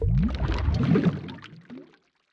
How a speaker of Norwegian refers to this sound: De forsvinner under vannflaten med et klask. Under vann er det andre lyder. Gledeslydene i hallen er forvridde. De har blitt til groteske rop båret på en bassfylt, ekkoløs frekvens.